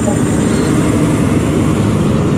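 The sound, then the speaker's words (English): A turbocharged diesel pulling tractor in the 7,200 pound tractor class, fitted with a five and a half inch turbocharger, roars at full throttle: a loud, steady, thick low rumble with a rough, churning texture that holds constant throughout. “He had a five and a half inch turbocharger on out there. So that was the biggest diesel.”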